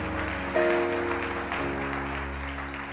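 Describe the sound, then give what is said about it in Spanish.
A church audience loudly applauds Jesus, a dense wash of clapping over sustained organ or keyboard chords, with one brief bright note near the start. “Dale el aplauso a Jesús fuerte porque mira, estamos por terminar y viene algo hermoso para ti, para mí.”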